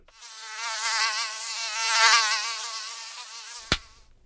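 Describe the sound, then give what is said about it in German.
A mosquito's high, thin whine drones steadily for about four seconds, swelling and fading slightly as it hovers, then stops with a sharp slap near the end. “Mistvieh. Elende Blutsauger. Mücken braucht doch wirklich keiner, oder?”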